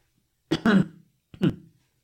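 Two short coughs separated by a brief pause, the first a quick double burst and the second softer, with silence around them and no talking.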